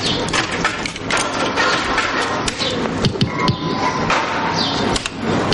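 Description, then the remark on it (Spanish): A woman plays a slot machine in a bar, dropping coins in: steady, busy mechanical clattering and sharp clicks, with faint electronic tones and a brief rising chime near the end. No one speaks. “Poco después, la mujer juega en una máquina tragaperras de un bar.”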